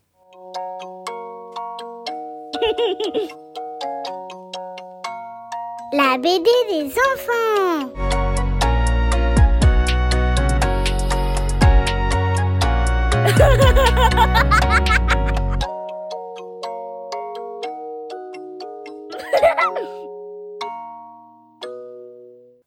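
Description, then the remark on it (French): A short, bright radio jingle introducing a children's comic book review segment: stepwise chime notes open and close it around a fuller burst of music in the middle, with children's laughter and a quick spoken title mixed in. “Allez, c'est bon, j'ai mon jingle, je suis trop content.”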